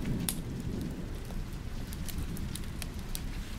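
A fire crackles steadily in a fireplace, sharp pops and snaps scattered over a continuous low, rushing roar. The sound is moderately loud, with no voices.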